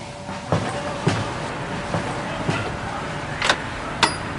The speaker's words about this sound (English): Was that the door?